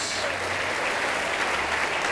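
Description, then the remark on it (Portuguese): A church audience applauds in the name of Jesus as more people come forward, dense overlapping clapping at a constant, fairly loud level throughout, with no pauses or distinct individual claps standing out. “Está chegando mais gente, vamos aplaudir ao nome de Jesus.”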